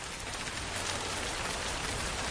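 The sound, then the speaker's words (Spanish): Steady, even rainfall with a dense hiss of drops pattering on a window, constant, with no talking. “Ahora relájate con el sonido de esta lluvia en tu ventana”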